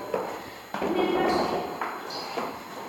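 Several hollow knocks on a neighbour's door on the fifth floor, spaced unevenly over a few seconds, each with a short ringing decay, against faint background murmur.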